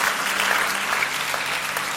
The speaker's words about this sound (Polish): Dlatego chciałbym, jeżeli możemy, jeszcze tak króciutko, podziękować cudownym osobom, które stoją przy drzwiach i są strażnikami Bożej obecności na naszym nabożeństwie. Zróbmy dla nich brawo. To nie jest lekka robota.